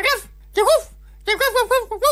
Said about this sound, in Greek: Αυτό το αξιολάτρευτο χαριτωμένο σκυλάκι. Το οποίο το βλέπουμε να κόβει βόλτες κοινώ στο, ε, στους χώρους του Μεγάρου Μαξίμου.